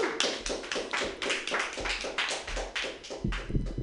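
Sparse, uneven clapping from a small audience, a handful of sharp hand claps overlapping in a loose rhythm for a few seconds, fairly close and moderately loud with no talking.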